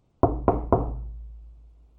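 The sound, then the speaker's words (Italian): Three sharp knocks from an iron door knocker, evenly spaced about a quarter second apart, followed by a low resonant ring that slowly fades. No voices. “La quarta volta prende tremando il battente di ferro in mano e bussa un piccolo colpettino.”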